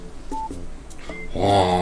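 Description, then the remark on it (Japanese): A few short electronic telephone beeps, like keypad dialing tones, lead into a louder, fuller ringing tone near the end, all brief, with no one speaking. “あなるほどはいで今石橋君今どこみたいな、うん、で電話がかかってくるみたいな”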